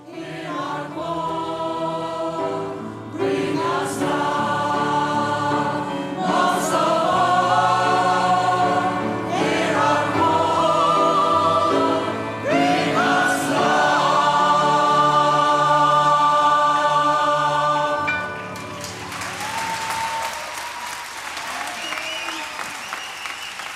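A crowd sings along with live music at a gala concert at Cirkus in spring 1993, voices and instruments sustained and full, before the song ends and loud applause takes over for the final few seconds.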